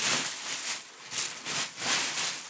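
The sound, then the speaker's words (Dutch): Thin, foldable paper crinkles and rustles as a small paper bag holding another bag is unwrapped, in a few irregular, bright, papery bursts with brief pauses between them and no talking. “Oké, een zakje met nog een zakje.”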